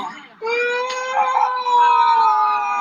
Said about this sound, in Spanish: Ay, que se ve que está triste. Ay, está llorando. ¿Quieres a tu mamá?